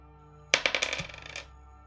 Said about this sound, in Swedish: Jag slår en tärning. Mm. Jag slår den berömda reaktionstärningen.